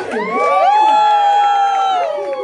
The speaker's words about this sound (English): Make some noise for her.